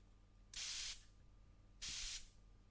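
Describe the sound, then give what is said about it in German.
Two short hissing bursts from an ice-cold La Roche-Posay thermal water spray, each lasting under half a second, separated by a brief pause, with no talking. “Es ist ein Thermalwasserspray, eisgekühlt.”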